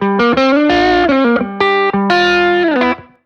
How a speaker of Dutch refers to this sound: Eh, ja, als ik straks die ES of zo. Dan hoor je echt zo'n zo'n Gibson hals element. Weet je, dat is echt anders dan dan. Dik en vet. En, Dik en eh, vet, heel romig.